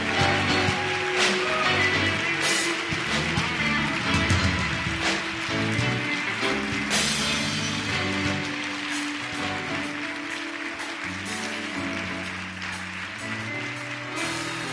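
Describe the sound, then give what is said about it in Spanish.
A church audience claps loudly and steadily for several seconds for the King, the dense applause mixing with sustained music playing underneath, with no speech over it. “Si vas a aplaudir, apláudele fuerte al rey.”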